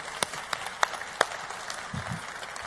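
An audience applauds two Amway Diamond distributors in a steady, crackling wash of many hands, with a few sharper individual claps standing out; a faint low voice murmurs briefly near the end.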